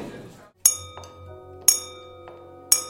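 Three bright, ringing clinks of something tapped against a glass at the start of a speech, spelling the letter O in Morse code, evenly spaced about a second apart, with softer taps between and a faint murmur fading out at the start.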